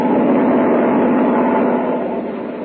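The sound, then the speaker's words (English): Engines of American and British airlift planes flying to Tempelhof Airfield in Berlin drone in a steady, loud, continuous roar with a rough, churning low-mid tone, as the planes push through thick winter fog near nightfall. It eases slightly toward the end, and no one speaks. “But still, the planes are battling their way through.”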